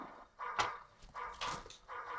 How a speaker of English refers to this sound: then, uh, after enough uh, dogs were screaming,